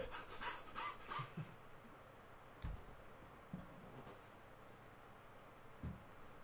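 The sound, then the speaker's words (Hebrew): A person imitates a dog panting through the mouth: a quick, rhythmic burst of breathy huffs, then a few scattered softer breaths and light thumps. “כלומר, יש בעלי חיים, למשל תיקח כלב, יש לו רק תא אחד. לכן הוא נושם רק מהפה.”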